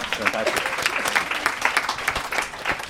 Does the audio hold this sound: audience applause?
yes